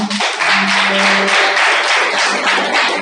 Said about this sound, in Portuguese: Aplauda o Senhor.